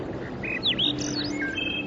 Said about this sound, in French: Écoutez les sons, les froissements des feuilles, le chant des oiseaux